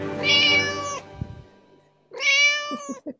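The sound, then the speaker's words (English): A cat meows twice, fairly loud: a long drawn-out meow, a short pause, then a second meow trailing into a few quick chirping sounds. “Meow.”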